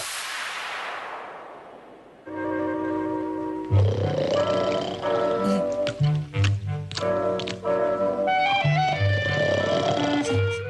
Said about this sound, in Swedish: Tänk att man hör direkt att det är Disney-snarkning. Det här är Disneyhunden Pluto som snarkar